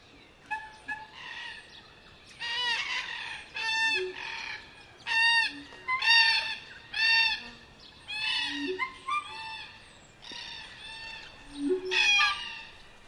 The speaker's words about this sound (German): Überall Krähen. Grau-rosa Kakadus. Krähen. Kakadus. Corella. Krähen. Corellas. Kakadus. Papageien.